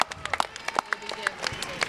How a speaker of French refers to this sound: Euh, après recomptage des points, les derniers sont bien les phares bretons. on applaudissez-les quand même.